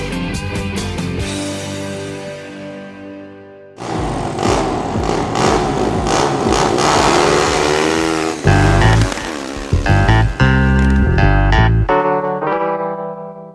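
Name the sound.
motorcycle engine revving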